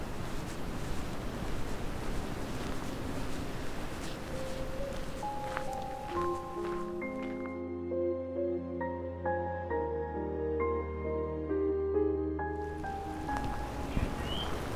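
Falling snow makes a soft, continuous hissing patter throughout, faint and even, briefly overlaid by a stretch of steady, layered tones in the middle.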